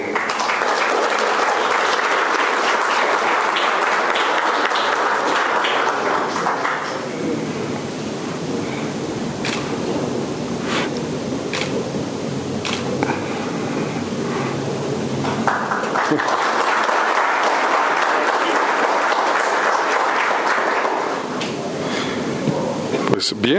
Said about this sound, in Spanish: Les pido un aplauso